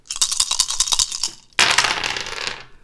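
Dice rattle in quick, bright clicks for about a second and a half, then tumble out in one sharp clattering burst that fades over the next second, rolled for a pen-and-paper game. No voices are heard.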